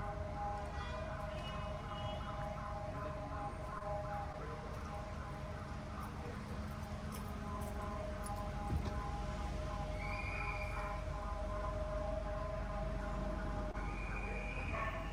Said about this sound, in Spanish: sí se sintió antes de que empezara a, a sonar la, alarma sísmica